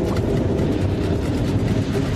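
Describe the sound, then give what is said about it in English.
A deep, steady rumble of a subway train passing beneath an apartment, heavy low-end roar with rattling texture, continuous, loud and unbroken, with no voices. “Right above the subway!”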